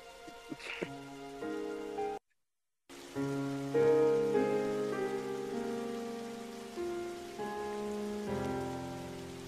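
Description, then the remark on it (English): A gentle piano melody of sustained chords and single notes plays over steady rain and thunder, with a brief silent gap early on; no one speaks. “And all this is the thunder, rain, and a fucking piano.”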